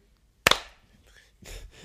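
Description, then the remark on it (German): A single sharp hand clap, made as a start signal before a recording, loud and crisp with a short ringing tail, then quiet before a soft voice or rustle starts near the end. “Hey, also diesmal haben wir einfach das Klatschen vor dem Rekord gemacht, während wir eigentlich schon die ganze Zeit aufnehmen”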